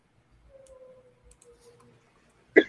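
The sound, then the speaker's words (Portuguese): A clock ticks faintly with a soft steady hum underneath, ending in one sharp, loud tick. No one speaks. “Relógio.”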